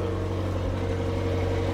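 A car engine runs with a loud, steady droning hum and a deep low rumble, holding an even pitch throughout with no voices.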